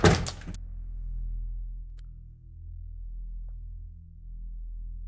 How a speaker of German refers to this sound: Mit einem Handgriff werfe ich die Tür ins Schloss.